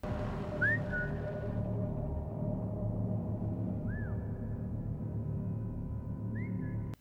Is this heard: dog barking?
no